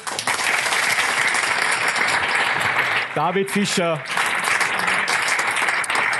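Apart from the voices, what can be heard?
audience applause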